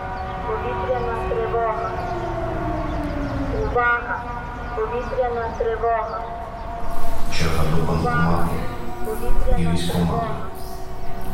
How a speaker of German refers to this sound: Die Sirene weckt deine Stadt auf, schüttelt die Luft mit Geheul durch. Ushorod, im Westen der Ukraine, Ende September 2023.